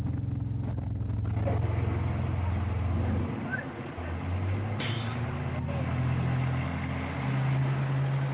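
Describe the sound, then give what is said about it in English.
A car carrying Antony Blinken rumbles with a low, steady engine drone that shifts pitch partway through as the vehicle moves, amid busy street noise. “It's from another day when you actually uh, greeted Antony Blinken in person, uh, at least when he was in his car.”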